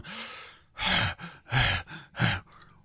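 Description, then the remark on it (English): A person imitates a loud breathing machine that runs on Windows 10, with heavy, rhythmic breathing: three strong, breathy huffs in quick succession, loud, with no words spoken. “So it's a loud breathing machine. It sounds like I sound like when I go up a flight of stairs”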